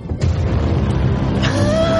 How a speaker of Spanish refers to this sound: me ha gustado mucho, me ha gustado mucho. Pero es que, claro, el trueno está perfectamente puesto.